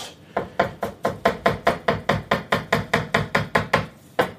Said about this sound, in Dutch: Let op voor jouw vingers. De paprika wordt in fijne blokjes gesneden.